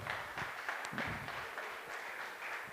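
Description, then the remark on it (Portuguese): A church audience claps steadily for the Lord at the end of a sermon, a dense wash of overlapping hand claps that holds at a moderate level without letting up, with reverberation. “Vamos aplaudir ao Senhor então.”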